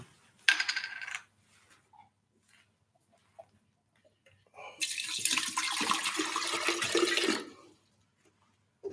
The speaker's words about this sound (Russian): Потому что, сейчас я воды себе налью попробую, чуть-чуть, а секунду.